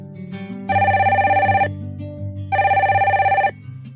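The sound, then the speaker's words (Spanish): A telephone rings twice in steady bursts, each a rapid warbling trill lasting about a second, separated by a short pause, with a low hum underneath; a phone call between two friends in Madrid on a Sunday afternoon. “Una aburrida tarde de domingo después de comer, dos amigos y residentes en Madrid hablan por teléfono.”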